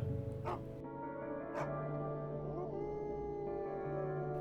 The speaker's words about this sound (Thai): เสียงไอ้ดอกไอ้เจ้าหมาตัวดีที่ครั้งนี้มันทั้งเห่าทั้งหอนแล้วสันหางกระดิก วิ่งตามทั้งสองคนกลับมา